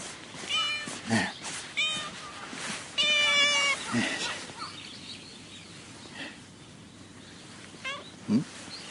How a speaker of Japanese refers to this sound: あ猫ちゃんだ猫ちゃん